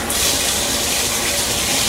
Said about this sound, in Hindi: पूजा ने जाकर देखा तो पानी वापस आ गया था उसने टैप बंद किया